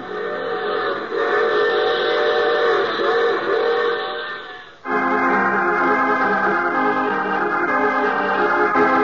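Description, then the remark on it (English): A loud steam train whistle sounds in two long, sustained blasts, with a brief pause between them, over the steady rumble of a running train. No one speaks. “I take this same train every week at the same time.”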